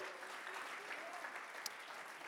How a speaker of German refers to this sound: Und komm on, lass uns Jesus mal kurz einen Applaus geben. Er ist würdig. Komm on, in Erlangen.